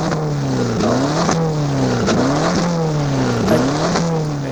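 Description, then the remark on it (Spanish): A rally car, ready for the Narón rally and already up to temperature, revs loudly and continuously, its pitch climbing in repeated sweeps then dropping sharply about every second, like rapid gear shifts. No voices are heard. “Este está a punto ya para el rally de Narón. Ya tiene temperatura y todo.”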